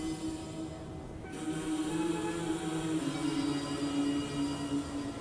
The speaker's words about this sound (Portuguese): E olha os, o barulho da água do rio.